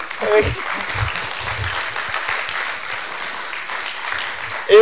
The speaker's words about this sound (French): Merci au public d'avoir été là, hein, bravo. On s'applaudit.